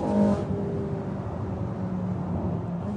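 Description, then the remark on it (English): A restored racing car engine roars steadily at top speed, probably around 140 to 150, heading up a hill and under the finish line, a loud sustained drone with a strong low hum and a brief brighter burst at the very start, no voices. “Very, very close in there another right hander, and then we're heading up the hill for the finish line. Top speed, can't be sure, probably around 140, 150, under the finish line now.”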